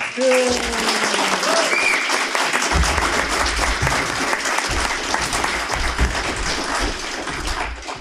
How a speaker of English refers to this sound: And I think all credit to the developers. It, you know, the way it's shaping up is absolutely phenomenal. So maybe a quick big round of applause for the developers as well.